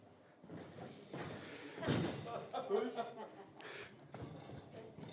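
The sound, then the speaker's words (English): A chair is set down with a single dull thud partway through, fairly loud, amid muffled room noise and a voice speaking. “Let's put it this way I've got this chair.”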